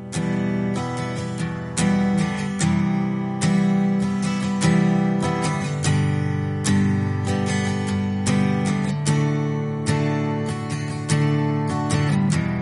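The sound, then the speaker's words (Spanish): A pop single's instrumental intro plays loud and steady, with a driving drum beat and sustained chords filling the mix, and no voices yet. “Ese es el título de este single que suena así y con el que vamos a cerrar hoy la agenda del día.”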